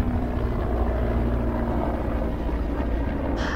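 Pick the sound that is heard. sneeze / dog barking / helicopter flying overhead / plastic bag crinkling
helicopter flying overhead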